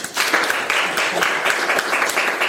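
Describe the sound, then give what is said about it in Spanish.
An audience applauds steadily, a dense crackle of many hands clapping at once with sharp individual claps poking out of the wash, sustained at an even loudness throughout. “Es ahí, aplauso. Aplauso.”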